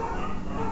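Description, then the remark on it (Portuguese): Several dogs bark and yip over one another in a dense, continuous chorus, steady in loudness, with no talking. “Pera aí, que tem um monte de cachorro latindo.”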